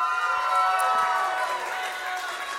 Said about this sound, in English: Let's cheer for Noah.